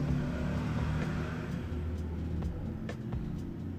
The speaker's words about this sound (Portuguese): Meu Deus, gente, parece que todas as motos da cidade decidiram passar dessa rua hoje.